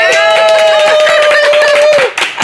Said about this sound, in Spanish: Aplausos para mí, por favor